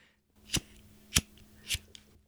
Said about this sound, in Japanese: いいよ、ライターのカチカチの音聞かせなくても ASMR でやってるわけじゃないからこれ